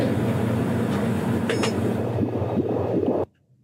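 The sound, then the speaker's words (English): A fetal heartbeat on an ultrasound machine in a nonprofit's Doctor Spot mobile medical unit: a steady rumbling whoosh with faint repeating pulses throughout, heard alone and fairly loud before it cuts off abruptly near the end. “That is a baby's heartbeat. Let me see if I can get the sound on it.”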